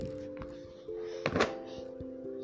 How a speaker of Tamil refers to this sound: அப்புறம்தான் அந்த டோருக்கு அந்த பக்கம் ஒரு சத்தம் கேட்குது என்னதுண்ணா எஸ் கதவு தட்டுற சத்தம் கேட்குது